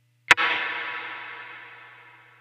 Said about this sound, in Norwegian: veldig lang etterklang. Og det, er veldig interessant det, altså hvis du lukker en øya og bare hører